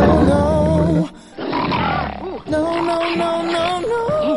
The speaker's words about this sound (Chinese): 美国科罗拉多州一男子慢跑时，忽然听到身后有响声，定睛一看，哎呦我擦嘞，美洲狮！